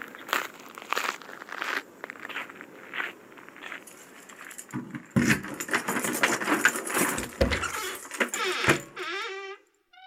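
Keys jangle and rattle in bursts alongside crunching footsteps on a walk up a path, fairly loud, with no talking, ending in a brief warbling, chirp-like sound.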